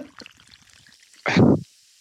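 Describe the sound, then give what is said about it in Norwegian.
An energy drink is poured into a goblet glass holding about 68 ice cubes in one short, loud splash lasting under half a second, after a stretch of faint, low rustling. “Kommer den, vet Så er det oppi glasset.”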